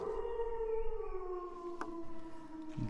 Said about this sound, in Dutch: Dit geluidje hebben we helaas van het internet. De wolf zelf heeft zich niet laten zien of horen